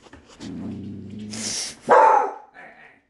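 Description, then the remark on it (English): A dog lets out a low growl that rises into one sharp, loud bark, then a brief softer yip trails off; no one speaks. “Whoa, dog. There's that last one again.”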